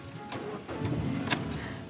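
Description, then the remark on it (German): Keys jangle with bright metallic clinks inside a car, a short burst of rattling over a low, muffled interior rumble, with no one speaking. “Richtig, ich bin in meinem Auto.”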